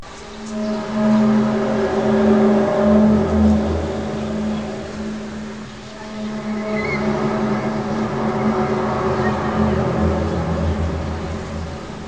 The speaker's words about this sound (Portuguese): esses barulhos no céu